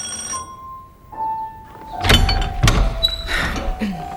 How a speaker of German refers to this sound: Obrecht wohnte in einer ärmlichen Gegend in einem verwahrlost aussehenden Haus. Tim klingelte.